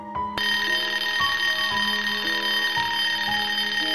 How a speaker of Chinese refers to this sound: 手机突然响了。